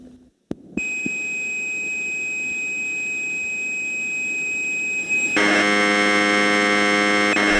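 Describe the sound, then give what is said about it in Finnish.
Commodore 64 program data broadcast on the radio as audio, Timo Suutari's space program lasting about a minute: a steady, piercing electronic carrier tone that abruptly turns into a louder, dense buzzing screech of modulated data, continuous, with no voices. “Seuraavaksi tulee Timo Suutarin avaruuden rauhaohjelma, joka kestää noin minuutin.”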